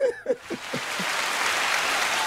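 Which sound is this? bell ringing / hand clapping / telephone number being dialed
hand clapping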